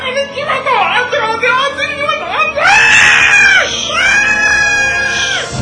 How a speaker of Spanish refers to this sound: ¿Qué no entiendes que ya no grites?